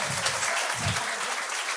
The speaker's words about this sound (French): Mais euh, oui, on peut, on peut applaudir. C'est ben des bons ah commentaires.